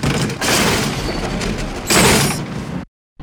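Heavy chains drag and scrape along the ground in a continuous metallic rattle, swelling louder near the end, then stopping abruptly before a brief burst starts again.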